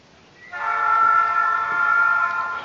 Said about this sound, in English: I would like to announce that we are on board of our 628 train. And you might wonder where this train is going, right?